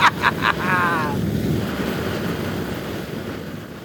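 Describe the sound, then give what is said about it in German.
A flamethrower roars in a steady, rushing blast that fills nearly four seconds, opening with a few quick high chirping tones before settling into a constant whooshing rumble. “Ist das ein Flammenwerfer?”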